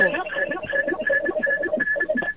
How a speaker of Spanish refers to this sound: ¿me está escuchando, Edwin? que me entró un revolú ahí, una, una interferencia